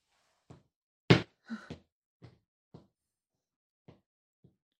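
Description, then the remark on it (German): Footsteps of someone walking across a hallway: about eight separate thuds spaced irregularly, one much louder impact early on, the later steps growing fainter as they move away. No one speaks. “Mensch, geht über Flur.”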